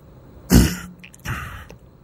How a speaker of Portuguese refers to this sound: Estamos trabalhando nos chakras dele, por isso esse uma espécie de pigarro.